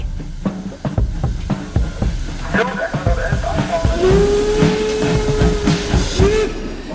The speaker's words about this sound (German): Meine Kleine ist zehn Monate alt und sie hört immer Geschichten über Züge und dann sind wir vorbeigelaufen und haben gesehen, da fährt der Zug und dann sind wir einfach eingestiegen. Es war sehr, sehr schön. Der Zug.